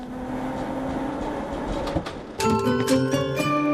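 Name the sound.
tram running on rails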